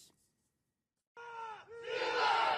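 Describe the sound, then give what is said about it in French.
After a brief silence, a group of pro-Russian soldiers with flags in hand erupts in loud cheering and shouting, celebrating the capture of the city of Lysychansk in Ukraine, voices rising together into a sustained, jubilant roar. “Sur ces images diffusées par un leader tchétchène, Drapeaux à la main, ces soldats pro-russes célèbrent la prise de Lysychansk.”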